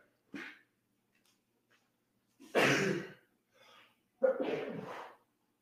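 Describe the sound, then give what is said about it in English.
A loud sneeze bursts out after a brief sharp intake, then a second forceful sneeze follows a moment later, with short quiet gaps between them and no talking. “I'm gonna sneeze.”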